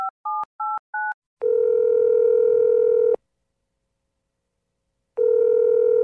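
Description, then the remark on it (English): Four quick keypad beeps are dialed to call someone late in the day, then a steady telephone tone hums for a couple of seconds, falls silent, and starts again, clear with no voices. “Let me put on some bedtime tea and call Rhonda.”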